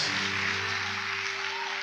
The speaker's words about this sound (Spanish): Vamos, si tú crees eso, no pares de aplaudir a Dios,